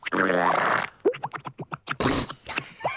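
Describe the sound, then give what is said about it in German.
A voice imitates a whale fart: a long, low buzzing blow, then a rapid string of short sputtering pops and a breathy, hissing burst, all close and fairly loud. “Also so habe ich mir eben die Wahlpupse am ehesten vorgestellt.”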